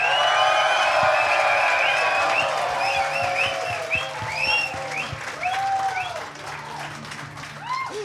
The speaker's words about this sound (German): Wacken 2023 EMP Backstage Club Area. Und bei uns bitte einen tosenden Applaus